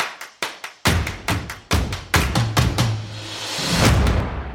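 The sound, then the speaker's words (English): Sticks tap in a quick, uneven series of about a dozen sharp clicks, sounding distant, with a low hum and faint reverberant wash swelling underneath toward the end. No one speaks. “And the same with these sticks. They sound over there, you know? They're over there in the distance.”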